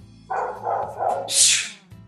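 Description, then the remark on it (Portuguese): Three quick dog barks in a row, muffled, followed by a brief rushing noise. No one speaks. “Deixa eu fechar aqui e ver se para de ter o latido dos cachorros.”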